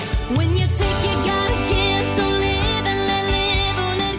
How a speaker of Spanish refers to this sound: con una versión que nos llega desde 2016 en el concurso de La Voz en la NBC